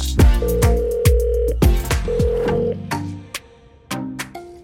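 An outgoing call's ringing tone sounds in two steady beeps, separated by a short gap, over a busy background of rhythmic musical hits. No one speaks.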